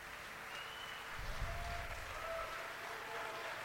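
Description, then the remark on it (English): An audience applauds Dr. Malone as he is introduced, clapping steadily throughout, a dense wash of applause that swells slightly partway through with a low rumble, then carries on at an even level. No one speaks. “Please applause for Dr.”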